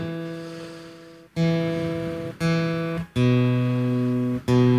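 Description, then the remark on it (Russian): A guitar being tuned live on air before a song is performed: a low string is plucked four or five times, each note ringing out and slowly fading, its pitch shifting slightly between plucks. No one speaks. “Но чуть поднастрою гитарку.”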